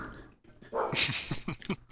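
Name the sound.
dog whimpering and barking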